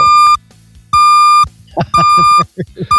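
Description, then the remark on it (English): A sound-effect board plays a bus backing-up beep: a steady, high-pitched beep repeating four times in an even on-off rhythm, with a man's voice talking over the later beeps. “I do not have the backing up beeping of the bus.”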